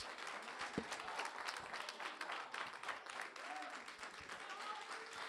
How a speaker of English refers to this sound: So I need everybody who's still in the race to stand up on your feet. I want to clap for you today and I want to say, God bless you for sticking with it.